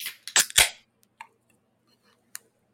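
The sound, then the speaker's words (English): A can of Trillium Brewing Company's Underneath the Secret Stairs, a 5% Boston Stout, cracks open with a sharp metallic click and a quick burst of fizzing hiss, followed by a couple of faint clinks and taps, with no talking. “In three, two, one, crack.”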